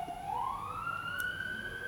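An ambulance siren wails steadily, its pitch sweeping slowly upward in one long rising tone, fairly loud amid low background rumble, with no voices.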